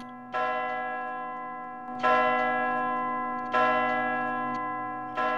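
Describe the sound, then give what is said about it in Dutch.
A church bell tolls four times at a steady, fairly quick pace, each heavy strike ringing out loud, its rich metallic hum lingering until the next blow. “Maar de bellen bleven luiden, heel hard en snel achter elkaar.”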